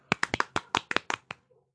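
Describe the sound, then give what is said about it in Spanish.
A short burst of hand clapping for an introduced guest, about ten sharp claps in a quick, slightly uneven rhythm, stopping abruptly after a second or so with no voices. “Un aplauso, por favor.”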